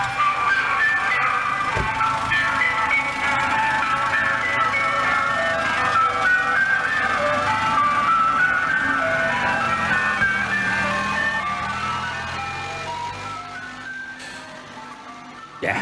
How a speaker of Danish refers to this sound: Vi kan lige prøve at høre et klip med en anden jordansk gasvognsklassiker.